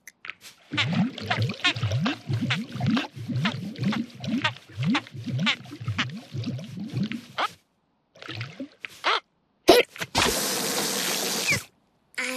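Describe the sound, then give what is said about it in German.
An elephant drinking lots of water: a steady run of rhythmic gulping, slurping swallows for several seconds, then a pause and a short, loud splashing rush of water. “Also, viel Wasser trinken hat nicht geholfen.”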